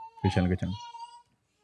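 A baby babbles alone in its crib, a short burst of high, tuneful cooing sounds lasting under a second, then trailing off into quiet. The babbling is not crying, and no adults speak.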